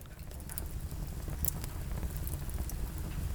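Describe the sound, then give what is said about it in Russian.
A fire crackles steadily in a home fireplace, recorded with the recorder moved close to the flames, with scattered sharp pops and snaps over a continuous low roar. No one speaks. “На самом деле это пламя моего камина.”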